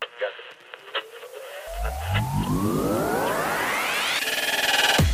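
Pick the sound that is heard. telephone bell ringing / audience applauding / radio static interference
radio static interference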